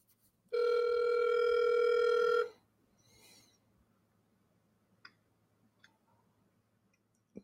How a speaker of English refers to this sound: Let me, let me call him real quick and see if we can get him back in here.